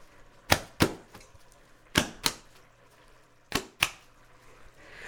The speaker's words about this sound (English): And then as soon as you take it off the heat, you're gonna clap the roti.